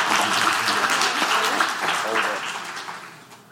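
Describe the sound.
An audience breaks into steady applause, dense and fairly loud, with a few voices calling out among the clapping before it gradually tapers off toward the end.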